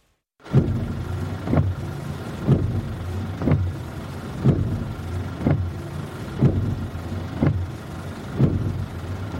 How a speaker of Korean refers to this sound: 마치 내게 그 이야기를 들려주러 온 사람처럼 나는 자동차 운전석에 앉아서 와이퍼를 작동시켰다.